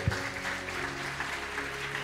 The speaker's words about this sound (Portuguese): Isso. Aplauda mais a vida dele.